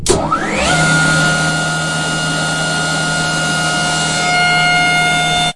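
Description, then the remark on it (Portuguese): A Formula E electric race car motor whines up in pitch over the first moment, then holds a steady, piercing high tone over a loud rushing roar, continuous until it cuts off. “Até o barulho lembra um pouquinho de Autorama.”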